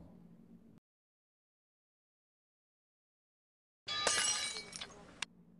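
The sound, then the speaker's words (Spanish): After a brief murmur of voice and a stretch of silence, a sudden loud crash of a speeding car erupts with shattering, clattering glass and debris for over a second, ending in a sharp final clink. “se escuchó el choque brutal.”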